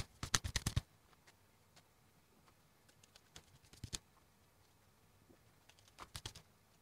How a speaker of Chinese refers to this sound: 那么今天一共用六种卡牌测验，因为有人跟老师反映说他喜欢听洗牌的声音，所以今天特地拍出洗牌的画面。